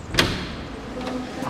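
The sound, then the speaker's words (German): A studio entrance door is opened: a sharp latch-like click near the start, followed by a low rumbling slide and a couple of softer knocks, with no one speaking. “Hey, Foxy, da vorne ist der Eingang. Richtig. Endlich, da steht Studio drauf.”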